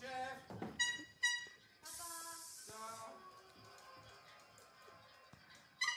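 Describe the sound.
A voice imitates an old engine for a puppet bus driven along the edge of a pavement kerb, making buzzing, sputtering tones that rise and fall, with a brief harsh rumbling burst in the middle and a honk-like blare at the end.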